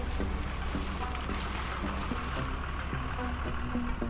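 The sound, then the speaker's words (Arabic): A bus on the road to Latakia, near the Al-Ghab plain, rumbles steadily as it pulls over and stops at a regime checkpoint at a soldier's signal. A low, constant drone carries faint mechanical clunks and rattles, with no voices. “لكن قبل ما تكتمل الرحلة بقرب الباص من حاجز تابع للنظام بالمنطقة وبإشارة من العسكري بيوقف على جنب”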